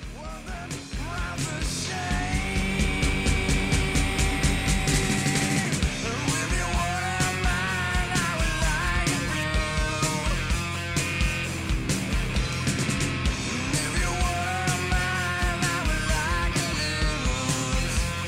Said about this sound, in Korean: 여기서 그 … 같은 노래 한번 들어보고 가시죠.